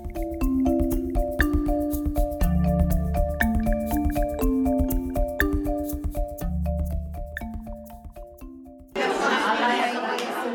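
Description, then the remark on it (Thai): Gentle piano music plays for several seconds, then cuts to a lively burst of many overlapping voices chatting and laughing at a charity tea party held at a home in Sydney, organised by the Lebanese Women's Fund of Australia. “นั่นคือเสียงบรรยากาศงานเลี้ยงดื่มน้ำชาเพื่อการกุศลที่จัดขึ้นที่บ้านหลังหนึ่งในซิดนีย์ซึ่งมีความหมายเป็นการส่วนตัวต่อผู้เข้าร่วมงานทุกคน กองทุนสตรีชาวเลบานิสแห่งออสเตรเลียได้จัดกิจกรรมนี้ขึ้น”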